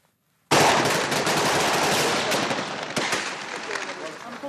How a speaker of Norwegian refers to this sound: Skuddsalver høres på stranden i Mogadishu. Ifølge øyenvitner har islamister skutt på måfå inn i menneskemengden som sitter langs stranden på det populære restaurantområdet i den somaliske hovedstaden.